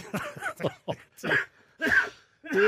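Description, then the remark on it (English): A loud coughing fit: a quick cluster of harsh coughs followed by several longer, wheezing, strained coughs, each separated by brief gasps, with no talking. “but if I make you laugh, you just go into a coughing fit.”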